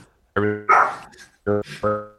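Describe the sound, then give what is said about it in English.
A dog barks several times in quick, uneven bursts: two sharp barks, a short pause, then two more, loud with no talking underneath. “Uh-oh, got some doggos on the cast.”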